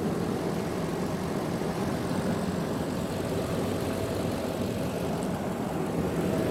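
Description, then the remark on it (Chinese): The 4700 V8 engine of a ten-year-old Land Cruiser that has run 160,000 km idles steadily, giving a deep, rich, continuous rumble with a faint hiss above it, unchanging throughout and with no one speaking. “V 八四七零零，听那个声音非常浑厚啊，完全感觉不到这是一台已经跑了十六万公里、十年的车了啊。”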